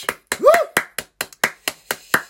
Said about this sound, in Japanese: 来ていただいた皆様、えー、盛り上げてくださった皆様、本当にありがとうございましたありがとうありがとうみんなに拍手